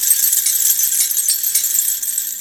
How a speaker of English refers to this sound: I thought you'd have like little bells or something. Oh no. Well, maybe mm, no, maybe it's... we'll insert some bells here.